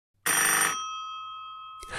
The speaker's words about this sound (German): Gerade als er einen neuen Anlauf unternimmt und seinen Unterarm mit voller Wucht in das Toilettenrohr rammt, klingelt nebenan. Der Fernsprecher.